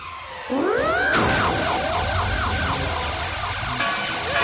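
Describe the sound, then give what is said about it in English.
A loud, charged-up sonic bark blast sweeps upward, then pulses into a steady, siren-like warbling wail that stays close and intense for several seconds, with no voices. “Quick, use your charged up sonic bark to ring that copycat's bell.”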